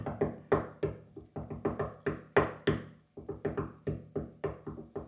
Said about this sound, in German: Das war das auf Holz klopfen, dass Daniel Craig nicht stirbt.